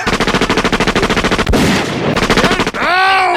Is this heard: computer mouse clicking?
no